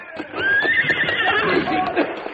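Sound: horse neighing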